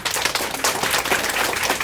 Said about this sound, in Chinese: 我们要再给公司一个热烈的掌声。